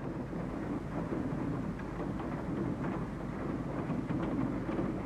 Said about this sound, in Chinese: 不知道能不能听见？这是现在外面的雨声，现在是下午六点多的样子，风挺大的